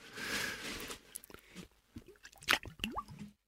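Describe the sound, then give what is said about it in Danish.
Whisky and cola is poured over ice cubes, opening with a fizzing gush, then crackling ice, a few sharp clinks and wet drips. No one speaks. “Hvad er det, du, hvad er det, du hælder op?”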